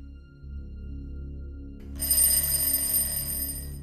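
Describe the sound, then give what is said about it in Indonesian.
A low hum, then a room's bell suddenly starts ringing midway in the morning, a bright, shrill, continuous jangle, fairly loud. No one speaks. “Pagi harinya, bel kamar Doni bunyi.”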